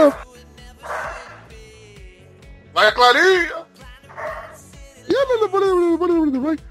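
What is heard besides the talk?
dog barking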